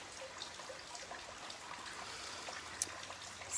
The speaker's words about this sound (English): Inhaling, exhaling, listening to the sound of the rain on the banana leaves. I know, I bet you thought it was always sunny here in Bali. Not so.